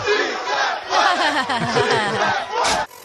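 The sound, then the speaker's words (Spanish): A loud crowd cheers and applauds the lawyers who are helping the community on the Piolín show. Shouts and whoops rise over steady clapping for about three seconds before cutting off abruptly. “Es que un aplauso para los abogados que están ayudando a la comunidad.”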